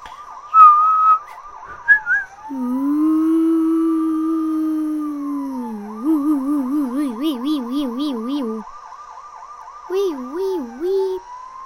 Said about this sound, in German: Wo meine Polizeitrillerpfeife wohl ist? Ein Pfiff damit und der gesamte Verkehr steht still.